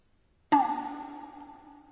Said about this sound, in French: On aurait dit quelqu'un qui frappait un tambour. C'est le son d'une percussion japonaise, un petit tambour porté à l'épaule. Dans ce cas, le mot pour ce son est Pom.